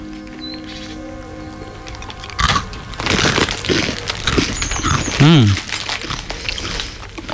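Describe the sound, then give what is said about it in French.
Crunching of mustard-flavoured potato chips in Auvergne, a series of crisp crackling bites and rustles that start abruptly and continue irregularly, with a brief hum from a voice mixed in. “Ben, un, poussin qui croque des, chips.”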